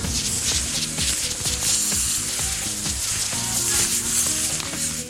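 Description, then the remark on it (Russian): A firework fuse, which burns for about 8 seconds, burns with a steady, hissing sizzle that crackles continuously for the whole stretch, joined by low rattling clicks underneath. No one speaks. “Фитиль горит секунд 8, так что времени отойти на безопасное расстояние у вас хватит.”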